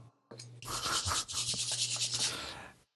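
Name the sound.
rustling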